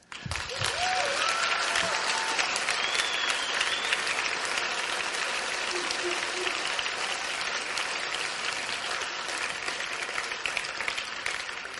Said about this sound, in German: Und deswegen kann der Applaus jetzt gleich nochmal dreimal so laut sein.